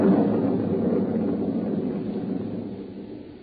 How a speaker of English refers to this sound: There was thunder and lightning around me, too, and up where I was, her voice was a whisper.